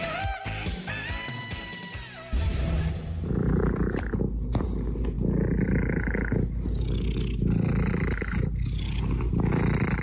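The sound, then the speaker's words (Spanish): After a brief tonal musical sting, a cat purrs loudly, a steady low rumbling with a gentle pulsing rhythm that continues uninterrupted to the end. “Les traemos un sonido muy relajante antes de irnos de nuestra historia sonora de hoy.”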